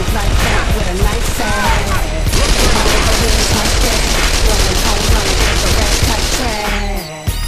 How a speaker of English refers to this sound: Watch out for the tanker! Shit! Who's shooting at the tanker?